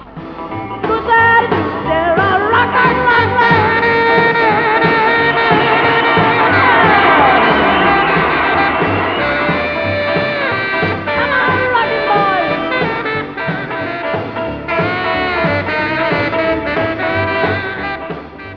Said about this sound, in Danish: Og så kørte speakeren øh, los derude og øh, lidt ind i musikken, så kunne jeg vise springet fra et almindeligt musikbånd til den der øh, stemning fra en koncert. Og det kommer faktisk her.